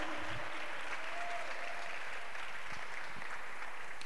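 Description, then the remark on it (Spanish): A church audience applauds Jesus steadily, a dense wash of many hands clapping at an even level throughout, with no voices standing out above it. “Aplauda al Señor Jesús, por favor.”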